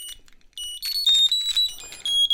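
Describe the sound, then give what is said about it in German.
A Funko Smart key finder tag rings out in the dark with shrill, high-pitched electronic chirps, a quick warbling run of beeping tones that grows louder after a faint start, with no talking. “Der kann auch hören. ganz zu klingeln.”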